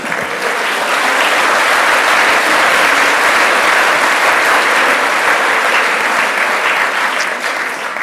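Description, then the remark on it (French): An audience applauds steadily for several seconds, a dense, even wash of many hands clapping at constant loudness with no voices standing out. “Et je crois qu'on peut les applaudir aussi pour ça.”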